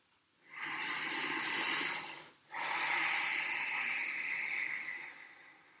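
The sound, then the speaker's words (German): Two long, audible ujjayi yoga breaths, in and out through the nose: a steady, hissing inhale lasting about two seconds, a brief pause, then a longer, rushing exhale, both with a soft, throaty ocean-like rasp and no talking. “Im Ashtanga Yoga wird auch oft die Ujjayi Atmung angewendet. Das ist das hörbare Atmen.”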